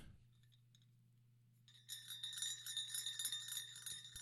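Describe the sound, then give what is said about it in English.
The Tsar Bell, a 400-ton bell of bronze, silver and gold and the largest bell in the world, rings out after a near-silent start, its bright metallic tones swelling and sustaining with a shimmering, reverberant tail over a low steady hum. No one speaks. “The Tsar Bell, ladies and gentlemen.”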